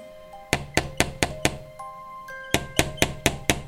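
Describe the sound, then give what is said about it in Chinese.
Polite knocking on the wooden door of a blue house overgrown with ivy: two sets of five firm, evenly paced knocks separated by a short pause, over soft sustained musical tones. “波伊森柔嘉上前礼貌地敲了敲门”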